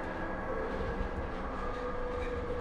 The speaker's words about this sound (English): peddling crack to passengers or crackheads passing as passengers on a train chugging from Chicago to Cicero, from the loop through K Town, Kedzie, Kostner, Kildare.